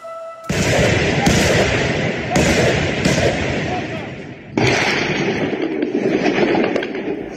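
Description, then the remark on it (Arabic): Loud, dense bursts of gunfire mixed with booming explosions in Tripoli, Libya, at dawn on 27 August 2022 during armed conflict, with sharp new volleys breaking out every second or so and a continuous crackling roar between them, lasting the whole time. “على صوت الرصاص ودوي الانفجارات استيقظ سكان العاصمة الليبية طرابلس فجر السابع والعشرين من أغسطس 2022”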